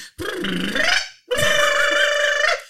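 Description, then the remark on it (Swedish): A person mimics a singer's vocal warm-up before a gig, with two loud, drawn-out strained tones, the first wavering in pitch and the second held steady, separated by a short breath. “Så, så min syrra är ju så, sångare, så hon står ju hela, hela alltså 20 minuter innan gig.”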